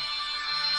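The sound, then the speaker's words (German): A work phone's alarm rings with a steady, bright electronic tone, moderately loud, sustained without a break for the whole moment and with no voices over it. “Nee, das ist mein Wecker.”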